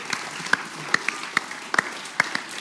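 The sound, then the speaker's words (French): An audience applauds the person who staged the show, a dense, steady patter of many hands with a few sharper individual claps popping out above the wash, lasting a few seconds with no talking. “Et, et, on va l'applaudir très fort parce qu'elle est là avec nous aujourd'hui.”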